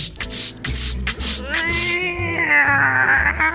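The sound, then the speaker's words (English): Repeated short bursts of a men's spray product called Raptor Scream hiss, then a person lets out a long, rising and wavering screech imitating a raptor's scream, loud, with low thumping underneath. “Every squirt is like the scream of a raptor finding prey.”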